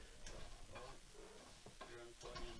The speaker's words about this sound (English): cooking supper over there.